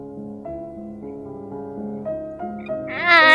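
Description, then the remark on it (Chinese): A single short, high-pitched kitten meow rises loudly at the very end, following a few seconds of soft, sustained musical tones with no talking. “说你偷偷养的小猫窜进我家里来了，”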